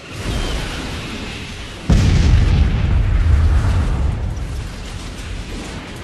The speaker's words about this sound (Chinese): 首先呢，让我把时间回到一九六八年三月二十七日的上午十点三十分左右，莫斯科郊外的弗拉基米尔新村附近，忽然传来了一声巨大的爆炸声。